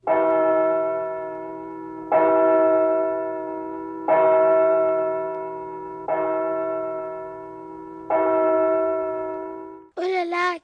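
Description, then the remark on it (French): A church bell tolls five loud, evenly spaced strokes about two seconds apart, each hum lingering and fading before the next; a brief voice cuts in right at the end. “Écoutez, qu'est-ce que ça peut être Je reconnais ce son, c'est celui des cloches.”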